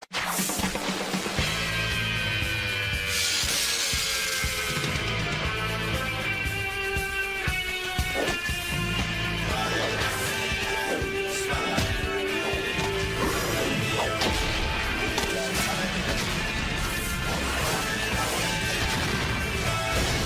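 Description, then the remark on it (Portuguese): The theme song of the 1990s Spider-Man animated series plays loudly and continuously, with sustained bright melodic tones over heavy, pounding drum hits and crashes, and no voices. “Ah, o Homem-Aranha série animada. E também tem uma música. Tem uma música maravilhosa. Sobe o som.”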